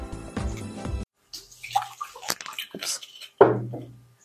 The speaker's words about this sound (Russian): мы уже в баре, да, судя по всем звукам.